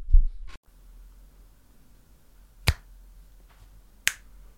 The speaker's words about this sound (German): Du musst auch einmal schnippen.